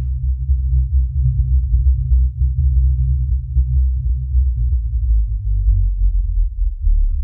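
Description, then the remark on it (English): A deep, loud synth bass drones on its own for the whole stretch, throbbing steadily while its pitch slowly slides down and then back up, with faint clicks ticking above it. “So, again, it's like it's not really like another bass I've made because it kind of pitches up and down.”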